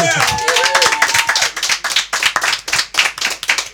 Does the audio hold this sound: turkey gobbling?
no